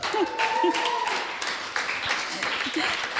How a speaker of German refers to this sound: jetzt schon mal einen Applaus.